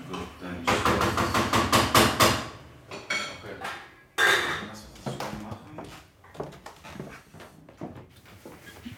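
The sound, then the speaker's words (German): Loud clattering of pots and dishes in a kitchen as someone cooks, with a dense burst of rapid knocks followed by scattered clinks and bangs, and people talking faintly underneath. “der kocht gerade.”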